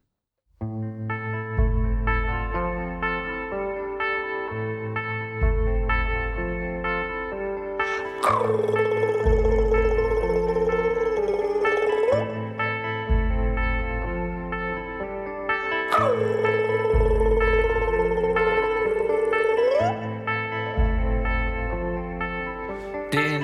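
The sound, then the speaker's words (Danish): A Danish song intro plays from a recording: steady rhythmic chords and bass pulse, with a distorted, reverb-heavy vocal-like swell rising twice over the music, loud and continuous. “Skal vi ikke høre den? Det synes jeg. …. Start ud med noget dansk kærlighed.”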